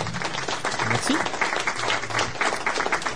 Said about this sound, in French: Voilà, je t'envoie les applaudissements.